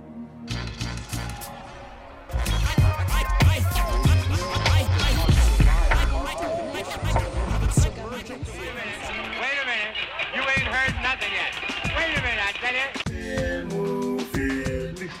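A song plays loud, with a driving bass-heavy beat and steady vocals carried over dense instrumentation, continuing without pause until a brief shift in texture near the end.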